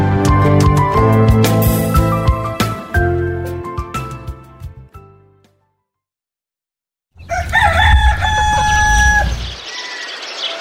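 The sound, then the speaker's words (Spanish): Full, layered music fades out into a short silence, then a rooster crows loudly at dawn, with several other birds singing around it before the sound drops away. “Brillan las primeras luces del alba. Varios pájaros cantan saludando al nuevo día.”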